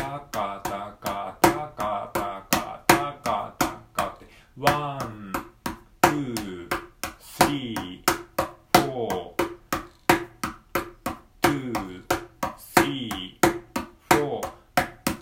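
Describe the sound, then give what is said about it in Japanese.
A mini cajon played with alternating right and left hand strokes in a steady, fast 16-beat pattern: crisp, evenly spaced slaps and taps at a moderate level, with a faint tonal hum running beneath the hits. “ミニカホンを叩いてみた⑥〜16ビートについて”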